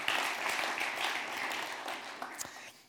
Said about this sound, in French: Je propose qu'on applaudisse cette résolution aussi.